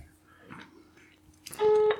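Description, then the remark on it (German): A telephone busy signal on a call to a directory assistance line: one short, steady electronic tone sounds loudly near the end, following a few seconds of faint rustling and near-silence. “Das ist wirklich oder? besetzt.”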